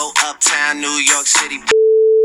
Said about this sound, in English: Ooh, uh oh, bad word. Hey, Nick, can you beep that out?